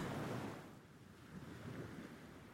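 Steady rush of sea waves washing in, a broad continuous roar that swells and eases slightly, with a soft breath of wind over it and no voices.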